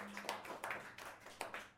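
Brief applause, a few hands clapping in a loose, fairly slow rhythm of sharp bursts, soft in level, with no voices over it.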